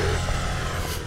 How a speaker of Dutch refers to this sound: De postbode rijdt voorbij.